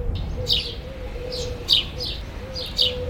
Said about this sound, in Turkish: Normalde hafta içleri ilk ve orta sınıfların cıvıltısı ve gürültüsüyle yankılanan bu bahçede salgın koşullarından dolayı kuş sesinden başka hiçbir şey duyulmuyor.